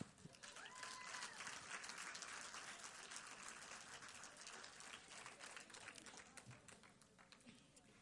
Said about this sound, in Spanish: Mire, me tienen que dar un aplauso porque no he terminado.